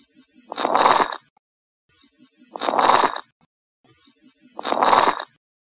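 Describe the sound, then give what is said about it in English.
Lung crackles (rales) heard through a stethoscope, caused by fluid or inflammation in the small airways: three evenly spaced breaths, each a rough, rustling swell with fine crackling texture, separated by short silences. No one speaks. “So here we'll go with some rales, some crackles for y'all.”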